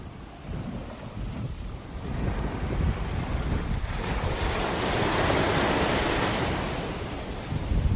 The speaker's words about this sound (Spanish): ahora aquí ya estamos en primavera y mira, mira qué ruido más maravilloso de las olas, te lo regalo.